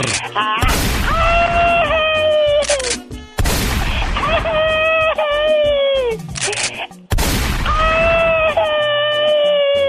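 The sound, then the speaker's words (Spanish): A man's flat, half-hearted scream repeats three times in close succession, each wail riding over a harsh burst of noise, loud, with brief gaps between. “Oh que ah, qué grito tan más flojo.”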